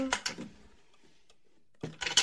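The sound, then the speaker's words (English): A desk drawer is pulled open with a short wooden scrape and rattle, then a pause before more clattering as its contents are shuffled and searched for a magical Norse horn. “desk drawer?”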